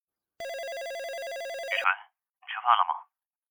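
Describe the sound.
A telephone rings with a steady, rapidly warbling electronic tone for about a second and a half, then stops abruptly as an incoming call is answered and a voice speaks in two short bursts.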